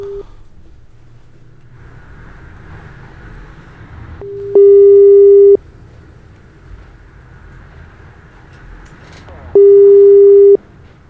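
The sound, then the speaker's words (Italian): A telephone ringback tone sounds twice, each a steady one-second beep separated by a long pause, ringing unanswered over a low background hum. “Non risponde? Non ci ha risposto.”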